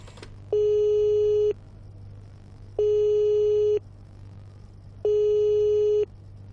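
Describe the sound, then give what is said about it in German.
A telephone busy signal: three steady, one-second tones separated by pauses of equal length, heard clearly through a receiver over a low background hum, with no one speaking. “Ich kann mal ans Telefon.”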